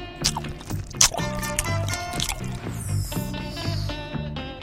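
Wet, squishy gum sounds as a bubble is blown, with soft sticky pops and a rising stretch, set against a steady tonal musical background without any talking.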